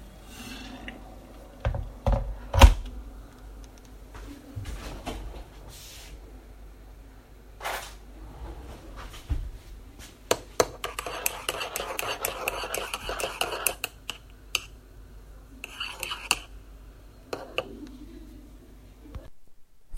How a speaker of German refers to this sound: Ja, das, was ihr jetzt gehört habt, ist der typische äh, Bürosound für mich. Jetzt abgesehen von Taster, Drucker und sowas. Das war die kleine Entspannungspause in der Teeküche, wo ich mir dann einen Kaffee oder zurzeit einen äh, Chai Latte mache